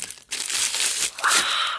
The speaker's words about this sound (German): Und vor allem das Knistern ist super geil immer, weil das einfach viel zu laut ist.